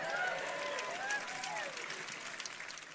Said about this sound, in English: Now, I don't know how I feel about you clapping about that, all right? I really don't.